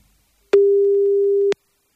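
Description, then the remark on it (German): A single steady ringback tone from a phone line sounds for about a second, with faint clicks at its start and end, then silence. No one speaks. “Es klingelt, es klingelt”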